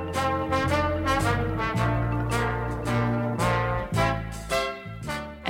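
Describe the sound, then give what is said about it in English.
Soft, smooth instrumental Muzak, the pleasant background music of a dentist's waiting room, plays steadily, with sustained mellow chords, a gentle bass line and light, regular percussion taps. No one speaks over it. “In the 1990s, as the world was coming to know Seattle for its sound, there was another sound based in Seattle that was already known far and wide Muzak. And this, the pleasant background music of a dentist's waiting room.”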